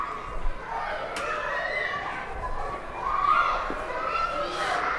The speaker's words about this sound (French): qui sont toujours un peu animées en termes de bruit, parce qu'il y a les enfants qui sont dans les cours de récréation. Donc on s'y habitue. Euh. et c'est assez agréable quand même en fait finalement euh, d'avoir toujours ce son euh, en arrière-plan.